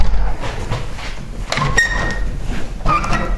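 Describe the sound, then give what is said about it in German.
Windows being shut: a couple of sliding scrapes with thin squeaks, then sharp clacks as the frames close, over a low rumbling background with no talking. “Dann können wir nämlich hier auch die Fenster zumachen.”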